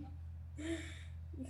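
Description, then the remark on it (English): A single quiet sneeze, a brief voiced burst with breathy hiss, then a short intake of breath, all over a steady low hum. “Bless you. Well, my brains out.”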